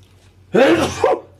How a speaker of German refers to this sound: Oh, ich muss gleich fürchterlich niesen.